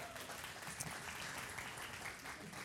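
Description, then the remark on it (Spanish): A crowd claps steadily for two women friends called up on stage, a dense, even wash of many hands applauding at a fairly constant level for a few seconds, with no voices standing out. “Un aplauso por favor para ellas.”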